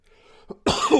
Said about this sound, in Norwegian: Nei, jeg er ikke helt frisk ennå, altså, så det blir litt hosting her. Jeg beklager det. Jeg prøver å hoste unna mikken, i hvert fall.